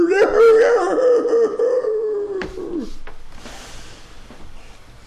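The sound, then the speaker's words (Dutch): A voice imitates a hunting howl: one long, wavering, fairly loud cry lasting a few seconds before it drops away, followed by quieter background noise. “En je hoort een, een, een gehuil opsteken. Een jachthuil.”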